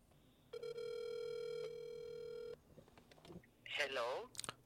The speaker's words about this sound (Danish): Philip er her også og øh, sidder klar med telefonen, og nu ringer vi altså op til, til Anna